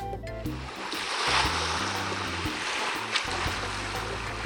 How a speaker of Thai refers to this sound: การได้ไปเดินบนทรายอุ่นๆ ฟังเสียงคลื่นซัดสาดหาดทรายซ้ำไปซ้ำมา